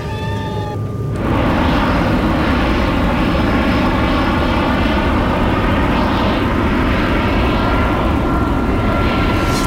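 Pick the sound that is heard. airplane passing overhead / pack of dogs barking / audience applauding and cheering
airplane passing overhead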